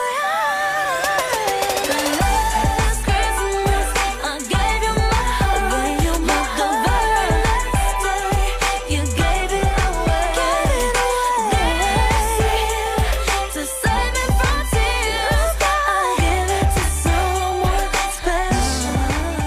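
A modern Christmas pop song plays loud and continuously, with a steady pulsing bass, bright layered synths and a sung melody running throughout.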